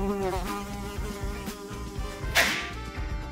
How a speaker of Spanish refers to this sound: ¿Habéis visto ese mosquito? Parecía un Boeing 747.